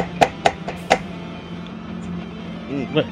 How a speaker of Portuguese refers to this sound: sou eu espancando a cadeira aqui que ela quebrou.